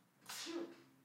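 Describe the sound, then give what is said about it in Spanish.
A single sneeze, one sharp breathy burst that fades quickly, fairly quiet, with nothing else around it. “Salud.”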